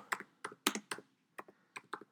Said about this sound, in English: I'm typing with one hand, by the way